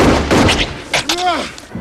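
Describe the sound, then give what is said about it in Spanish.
Gunshots in a war film scene where Kovic is shot in a demilitarized zone on 20 January 1968: several loud, sharp bangs in quick succession, followed by a short rising-and-falling vocal cry that fades under lingering noise. “Esta escena, la del tiro, es una de las mejores.”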